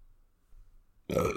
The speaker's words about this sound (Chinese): 你很烦呢，你好笑，你今天一直狂打嗝。 对， 你今天吃了什么？ 我今天就是家常菜而已啊。